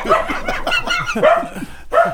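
Several dogs bark and yip outside a studio in quick, overlapping bursts, a busy excited chorus that continues with barely a pause for about two seconds, with no one talking.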